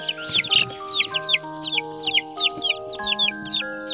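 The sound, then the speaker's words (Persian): A hen clucks in a rapid, steady series of short, bright calls, clear, layered over soft sustained musical tones with no one talking. “تو باغ حیوانات مختلفی هم زندگی میکردن مثل سگ، گربه، مرغ و خروس بچه مرغه هر روز تخم میذاشت چند تا جوجه هم داشت که خیلی کوچیک بودن”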